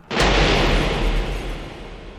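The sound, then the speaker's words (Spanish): A single sharp gunshot cracks out suddenly and loudly, followed by a long rumbling echo that slowly decays over a couple of seconds. No voices are heard. “Un disparo.”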